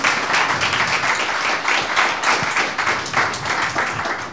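Sustained applause from an audience thanking the speakers after a lecture, dense overlapping claps forming a steady wash of noise that stays loud and even throughout, with no voices standing out.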